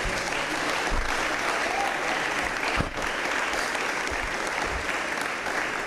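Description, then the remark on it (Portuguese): An audience applauds steadily, a dense, sustained wash of clapping from many hands that holds at a fairly even level for several seconds, given as a round of applause for Jesus. “Se você crê nisso, dê uma salva de palmas para Jesus.”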